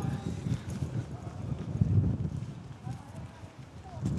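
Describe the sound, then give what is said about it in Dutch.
A foot stamps repeatedly on a pop-up public toilet that has not come up, making dull, hollow thumps in an uneven rhythm, with wind noise and faint voices in the background. “Ik stamp er nog eens op, nou ja, zeg.”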